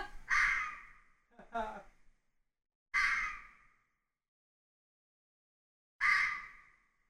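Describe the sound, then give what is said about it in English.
Harsh, raspy bobcat screams ring out four times at three o'clock in the morning, heard through a cabin's open windows against a silent background, two close together and then two spaced a few seconds apart, each loud and breathy before trailing off. “that a bobcat? That's is that bobcat.”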